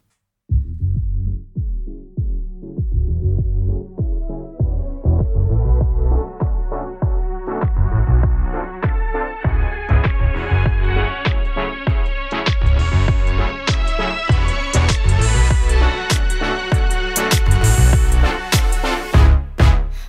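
A band's top hit song by a male-female duo plays loud and on its own, driven by a steady thumping bass beat. It starts muffled and grows steadily brighter and fuller over about twenty seconds.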